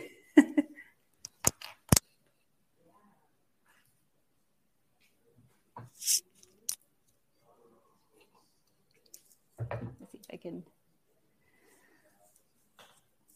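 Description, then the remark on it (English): Someone rummages to grab a pencil: a few sharp clicks and clacks, then scattered bursts of soft clattering and shuffling spread out with quiet gaps between them. “Um, can I grab a pencil real quick?”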